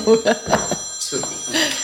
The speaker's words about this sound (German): Oh je, Entschuldigung wir müssen kurz unterbrechen. Das Telefon läutet.